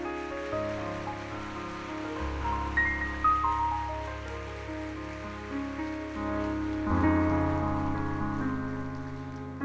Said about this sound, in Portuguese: Você pode aplaudir a Deus pela vida da pastora?